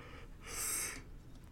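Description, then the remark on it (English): A single breathy exhale swells up and fades over about half a second, airy, a person yawning, with no talking. “I feel like your yawn helps sum it up too.”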